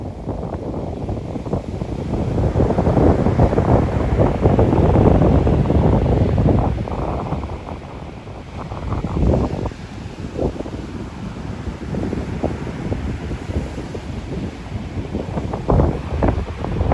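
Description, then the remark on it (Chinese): Strong northeast monsoon sea wind at Hualien, Taiwan, buffets the microphone in low, rumbling gusts while distant ocean waves roll and wash underneath, swelling louder early on and then churning steadily. No voices. “呃，你可以想象着海风迎面而来，然后海浪在远处的感觉。”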